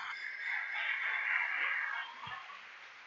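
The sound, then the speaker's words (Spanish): A crowd applauds the Lord steadily for about two seconds, a dense, even wash of clapping that then tapers off to a softer patter, with no voices heard over it. “Dele el aplauso al Señor por eso.”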